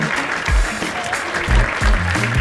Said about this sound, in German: Ich habe heute sogar einen Applaus-Button. Sollen wir den mal probieren?